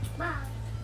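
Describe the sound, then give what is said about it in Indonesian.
The speaker's own young child lets out a single brief, high-pitched vocal cry over a steady low background hum, with no talking. “itu suara anakku”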